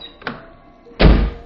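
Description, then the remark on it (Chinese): A main front door is slammed shut hard with a heavy, booming thud, preceded by a brief rattle of the handle or latch; no one speaks. “说完，杜梅重重关上大门。”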